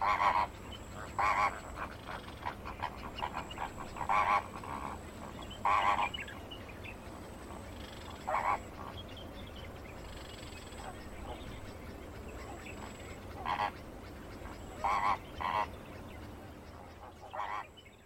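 Flamingos give loud, nasal, goose-like honks in short bursts, some doubled, repeated irregularly about a dozen times over a steady murmuring background of other birds, with no talking.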